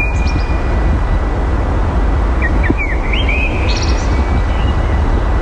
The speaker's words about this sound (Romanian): Asta e. Aș fi, era în copac, că n-am pus să mă apropii mai mult. Cred că e gri de asfalt. Nu, eu cred că e mierlă. Așa este părerea mea, că e mierlă.